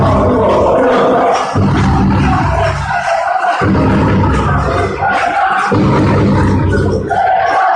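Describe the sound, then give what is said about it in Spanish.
A loud handball crowd at Huerta del Rey, at an Atlético Valladolid match against Barça B, chants "Pulpera, pulpera" in unison, a repeated two-second phrase rising in swells with brief dips between each shout, steady and roaring throughout. “Pulpera, pulpera, vuelven a gritar aquí en, en Huerta del Rey.”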